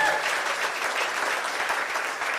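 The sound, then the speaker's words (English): A church audience claps steadily for the worship team in the morning, a dense, even wash of applause that holds at the same loudness for a couple of seconds, with no voices standing out. “Let's hear it for our worship team this morning.”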